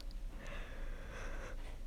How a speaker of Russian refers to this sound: я зазевалась, надо заканчивать. А то что, мы зевание слушать такое себе мероприятие.